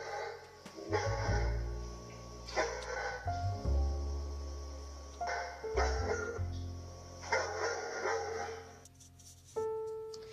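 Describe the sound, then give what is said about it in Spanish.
Several dogs bark all around in repeated bursts over a low steady rumble, the barking coming from different directions, with brief pauses between volleys and no talking. “y al quedar libre oyó como por todas partes la ladraban los perros.”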